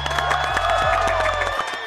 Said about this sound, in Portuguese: Eu quero aplausos.